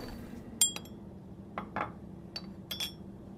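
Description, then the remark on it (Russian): Several small glass clinks ring out with bright, brief tones, spaced irregularly, with a short soft pouring swish between them as tea from a large wrapped teapot is poured into glasses in a pavilion, over a low, steady hum. No one speaks. “Когда стаканы наполнились, и в воздухе сильно запахло корицей и гвоздикой”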